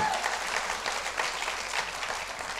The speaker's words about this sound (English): Clap your hands like you're going to pull this thing off because you reside in the presence of God.